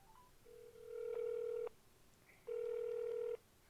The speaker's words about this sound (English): That's why you get the Dumb Dumb Award of the Day, but we're going to call him on speakerphone right now.